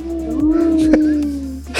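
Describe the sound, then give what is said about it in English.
A person imitates a wolf howl, one long, steady, moderately loud voiced tone that holds for over a second with a slight pitch drift, followed by a short breathy noise. “the little howl at the end, I love it.”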